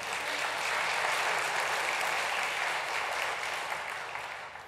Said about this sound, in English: I appreciate that you clapped for her because she specifically told me not to encourage, to tell you to do that.